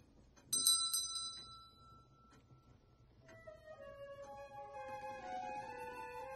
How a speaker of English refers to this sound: But when we're first about to see the Marleys and you know the, the door, you. yeah, the the bell that goes ringing, ringing is so scary. I hate that shit.